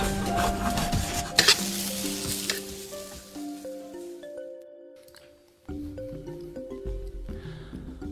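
Hot oil with garlic and Sichuan peppercorns sizzles loudly in a frying pan, to be poured over steamed eggplant. A sharp crackling burst comes early on, and the hiss fades out after about three seconds while a soft melodic music bed continues alone.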